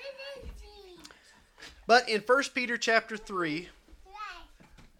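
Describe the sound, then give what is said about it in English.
High-pitched children's voices chatter faintly in the background of a house church service, most noticeable at the start, while an adult speaks louder in the foreground. “And so, if you hear them in the background, they're making a joyful noise unto the Lord.”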